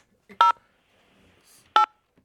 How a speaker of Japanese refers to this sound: 連絡先聞いたんで、一旦ちょっと電話してみましょう。